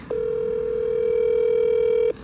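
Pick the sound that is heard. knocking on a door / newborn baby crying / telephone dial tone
telephone dial tone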